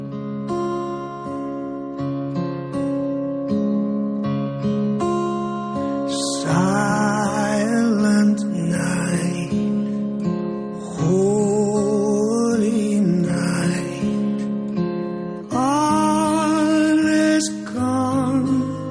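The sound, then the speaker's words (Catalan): A slow rendition of the Christmas carol Silent Night begins with sustained, gentle instrumental chords, then a choir of Scottish children joins in, singing in full, close harmony over the accompaniment in long, swelling phrases. “perquè a més a més ho fa amb un acord de nens escocesos, i sona així de bé.”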